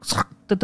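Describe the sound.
A single voice mimics the door lock of hotel room 3017 unlocking after a key card is swiped: a short scraping syllable, a brief pause, then two quick clipped clicks, spoken clearly.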